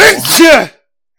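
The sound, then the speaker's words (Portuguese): A single sneeze, a quick breathy intake rising into a short, loud voiced burst that cuts off abruptly into silence. “Saúde.”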